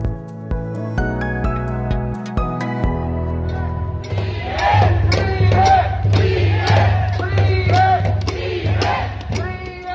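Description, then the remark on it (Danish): A few seconds of plucked musical notes give way to a crowd of demonstrators marching on Karl Johan in Oslo on a Saturday, chanting and shouting "freedom" against coronavirus restrictions in loud, rhythmic bursts over a steady low hum. “Det vi hører her er lyden av eh, demonstranter som går på Karl Johan i Oslo.”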